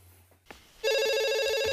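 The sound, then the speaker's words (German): A telephone starts ringing abruptly after a brief quiet moment, a loud, steady electronic ring with bright harmonic tones that continues without pause. “Telefon.”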